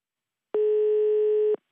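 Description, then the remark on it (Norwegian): A single steady electronic telephone tone sounds for about one second, clear, then cuts off, the ringback of an outgoing call to a press ethics expert in Norway as it connects. “Så vi ringer ekspert på presseetikk”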